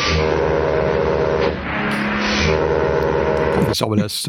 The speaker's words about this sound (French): Faut vraiment que tu changes ton, ton klaxon de ta voiture, Blast.